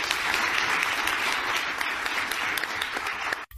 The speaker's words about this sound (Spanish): Denle un aplauso a este cabrón.